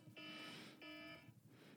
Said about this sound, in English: oh, my timer's about to go. There we go.